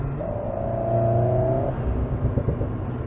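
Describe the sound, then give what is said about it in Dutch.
A four-cylinder sports car with an active exhaust, set in sport and track mode, revs, holding a steady droning note for over a second before dropping off into a burst of programmed crackling exhaust pops, with no voices. “als je hem in de sport en een track modus zet, want hier zit een actieve uitlaat op, ja, de basis heeft dat, dat niet.”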